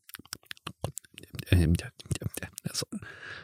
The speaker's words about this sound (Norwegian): Sånn høres det ut hele tida når jeg sitter og skriver. Såpass. Jeg hadde ikke takla det. Nei, det er helt krise hvis du er ute blant folk. Men da sitter jeg e- og nunner teksten mens jeg skriver den.